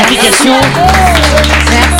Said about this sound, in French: on t'applaudit très fort.